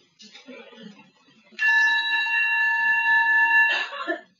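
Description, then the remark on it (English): After some soft murmuring, a meditation bell, rung for a sound meditation lesson, rings out with a loud, sustained, shimmering tone for about two seconds, then stops abruptly amid a brief rustle and a voice. “Because we have this very nice bell.”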